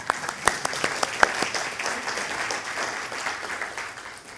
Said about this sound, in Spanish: Un aplauso para la pianista.